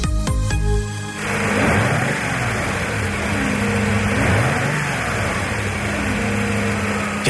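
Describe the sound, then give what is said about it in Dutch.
A Mercedes V8 engine from the SL and SLC-Class W107 starts with a brief whine, then settles into a steady, loud, rumbling idle, rising in pitch for a couple of short revs before easing back down. No one speaks. “Dit is de V8 van de Mercedes SL en SLC-klasse, de W107.”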